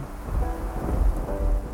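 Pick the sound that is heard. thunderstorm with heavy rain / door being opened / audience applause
thunderstorm with heavy rain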